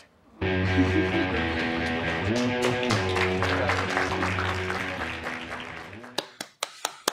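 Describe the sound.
Applause for a man: a dense wash of applause mixed with sustained voices or tones holds steady for several seconds, then thins out to a handful of sharp, separate claps at the end.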